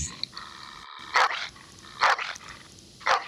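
dog barking

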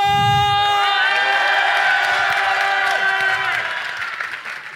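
audience cheering loudly

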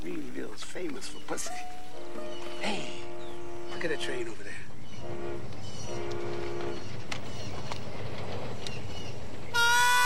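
train passing

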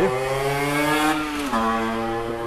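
motorcycle passing by outside

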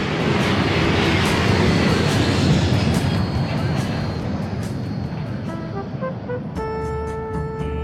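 airplane engine

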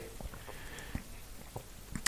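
sipping cider

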